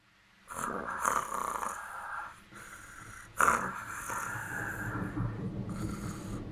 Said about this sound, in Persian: وای دیگه نمیتونم تحمل کنم چقدر این ملخ خور خور میکنه